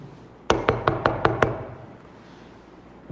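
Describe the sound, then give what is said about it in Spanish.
A quick series of six firm knocks on a door by a poor man, evenly spaced, followed by quiet background with a faint thump near the end. “En eso toca la puerta un pobrecito.”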